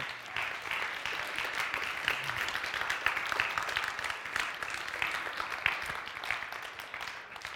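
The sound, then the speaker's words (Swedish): A crowd in a church applauds steadily for several seconds to welcome a man to the front, a dense, even wash of many hands clapping at once with no voices standing out. “så vi kan väl välkomna honom fram med en applåd.”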